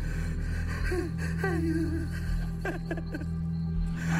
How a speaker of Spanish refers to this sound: Ya estaba yo dormido cuando me despertó un llanto, un lamento.